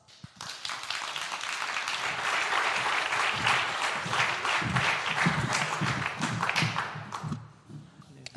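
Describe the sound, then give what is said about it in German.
An audience applauds guests being called up for a panel discussion, a dense wash of many hands clapping at a fairly loud, even level for several seconds before tapering off near the end. “Bitte kommen zu mir auf und einen herzlichen Applaus.”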